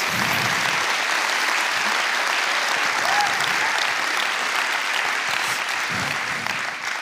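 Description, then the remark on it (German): Steady, dense applause from an audience during a harvest thanksgiving (Erntedankfest) church message, given for all people who do not give up while in pain, a broad wash of clapping that holds at an even, fairly loud level for about seven seconds with no voices over it. “Und deswegen äh, lasst uns all den Leuten Applaus geben, die nicht aufgeben, wenn sie gerade im Schmerz sind.”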